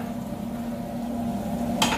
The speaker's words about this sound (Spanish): Un poquito de ajo, poquito de ajo. Vamos a poner un buen pimentón, generoso acá con esto. ¿Sí? Un buen pimentón. Vamos a dorar un poco estos ajos.